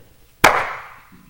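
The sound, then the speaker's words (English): One sharp, loud hand clap rings out alone, with a bright crack that trails off over about half a second before quiet returns. “Clap the hands, it's an exaggeration.”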